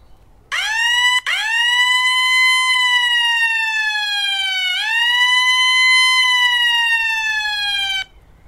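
A loud electronic siren alert sounds from a volunteer's cellphone app, set off by a call for help in the area two or three blocks away, a bright buzzy tone that swoops up, slowly sags, then swoops up again, playing alone for about seven seconds before cutting off.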